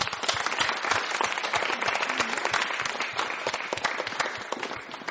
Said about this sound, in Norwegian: OK, vi gir hverandre en stor applaus.